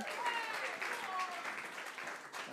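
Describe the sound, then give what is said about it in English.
An audience applauds steadily for a couple of seconds, a dense, even wash of many hands clapping, with a few cheers and voices mixed into the noise. “Could I ask you to give a round of applause, please,”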